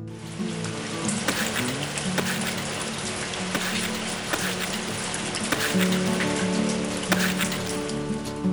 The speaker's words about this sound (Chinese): 哈波想起那一天，雨滴噼里啪啦，噼里啪啦。哈波和爷爷蹦蹦蹦，让大雨更澎湃翻腾。